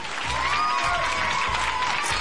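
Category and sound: sound effect, applause sound effect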